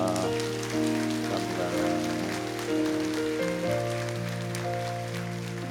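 A church audience applauds in warm encouragement for people with disabilities and their praying families, with steady, dense clapping that holds for several seconds, while sustained keyboard chords play underneath and shift pitch partway through. No one speaks.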